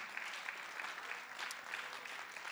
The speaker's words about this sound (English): One more time, clap your hands and thank the Lord for them.